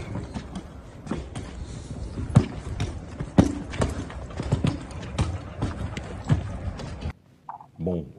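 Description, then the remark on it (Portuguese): Muffled gunshots, several dull thuds at irregular intervals over a steady rumbling background before the noise cuts off abruptly. “barulho abafado, aquele som surdo de tiro, enfim, é, não vou conseguir identificar.”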